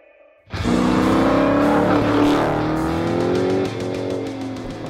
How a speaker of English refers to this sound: You hear those car sounds? Those car sounds could be yours. Send the noise of your car, take a recording of it, a video of it,